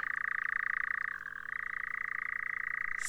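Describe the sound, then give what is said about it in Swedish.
A European nightjar churrs steadily and without pause on a light summer night, a dry, rapid mechanical trill that dips briefly in pitch before resuming. It is fairly loud, with no voices. “Nattskärra, en väldigt skum fågel.”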